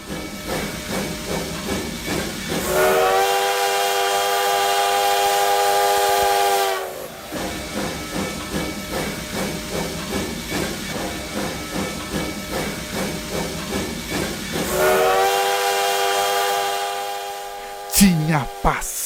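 A steam train chugs past with hissing steam, sounding two long, loud whistle blasts separated by rhythmic puffing, without any voices.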